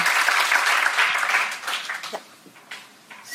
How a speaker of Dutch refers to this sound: Zullen we een applaus geven? Dank jullie wel. Dank jullie wel.